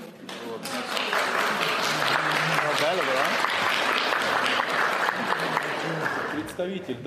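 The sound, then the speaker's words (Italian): Sustained, dense applause from townspeople gathered with the mayor in a town theatre, welcoming a group of Italian visitors, fills the space for several seconds, steady and fairly loud, with voices murmuring and calling out underneath before it starts to thin at the end. “Dopo vari preamboli e un po' di anticamera ci fanno entrare nel teatro e la cittadinanza presente ci accoglie con un caloroso applauso.”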